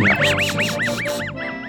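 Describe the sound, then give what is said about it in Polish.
A voice imitates a cartoon dog's wheezy, snickering laugh: a quick rhythmic string of about nine raspy, rising-and-falling huffs, fairly loud, with no talking. “a pies, się, pies śmiał, śmiał się śmiał”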